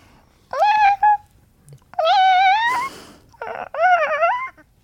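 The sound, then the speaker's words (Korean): A person imitates Jeomttungi, a foster cat, producing several drawn-out meows with rising and falling pitch, fairly loud, with brief pauses between them and no other talking; it is the sound the cat makes when caught sneaking into the bedroom and running out. “점뚱이 성대모사 한번 가볼까요?”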